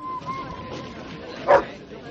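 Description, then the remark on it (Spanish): A dog released at a train station lets out a single loud, sharp bark as it leaps at a woman, preceded by softer whining yips, all over a low background murmur. “Bror suelta al perro que se abalanza sobre Karen.”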